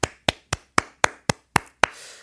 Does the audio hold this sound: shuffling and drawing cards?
no